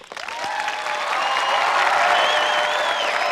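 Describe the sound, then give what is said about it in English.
A capacity crowd at Feather Nation Studios applauds and cheers loudly, with steady dense clapping swelling over the first second and holding, plus shrill whistles and shouts threaded through the roar. “Feather Nation Studios capacity crowd here.”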